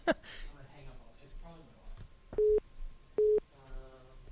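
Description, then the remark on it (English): A phone rings with an incoming call: two short, steady electronic tone bursts about a second apart, clear and fairly loud, while people keep talking softly around them. “Um, and okay, someone's calling my phone. Hold on a second.”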